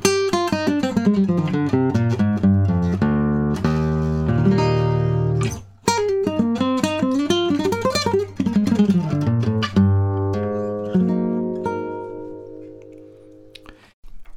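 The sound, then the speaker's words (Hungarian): An unamplified nylon-string guitar plays its natural sound, recorded with the same microphone used for speech. It plays a flowing melody over low bass notes, clear, with plucked notes ringing into one another before a final chord sustains and fades. “Ennek a hangszernak a természetes saját hangja, amit e, azzal a mikrofonnal rögzítek, mint amiben beszélek, azzal körülbelül így szól.”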